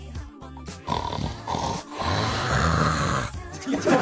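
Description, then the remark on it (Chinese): A man snores heavily, with loud, rough, rattling snores drawn out in long breaths, roughly three in a row with brief pauses between them. “你看旁边睡得跟死猪似的，你听听他呼噜声。”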